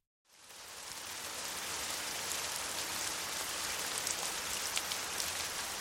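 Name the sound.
sudden rain falling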